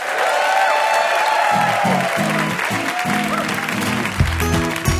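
An audience on the NPR quiz show Ask Me Another claps steadily and densely throughout, a broad wash of applause with a few whoops and cheers rising over it, while low musical notes start playing underneath partway through.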